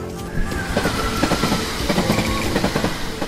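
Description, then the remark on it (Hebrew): A passenger train, the Santa Claus Express, rolls steadily along the rails at night toward Lapland, Finland. Its low rumble is broken by regular clacking beats from the wheels passing over track joints, continuous with no voices. “אז עוד באותו לילה הוא עלה על רכבת ללפלנד”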